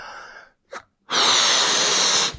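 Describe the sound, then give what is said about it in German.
A quick breath in, then one long, forceful blow of air lasting over a second, loud, as someone blows air into a balloon. No talking. “Und dann bläst man seinen Ernst, den, der sitzt nämlich in der, in der Lunge fest, und den bläst man dann aus sich heraus in den Luftballon hinein. Das geht um, klingt ungefähr so.”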